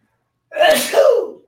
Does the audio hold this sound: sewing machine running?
no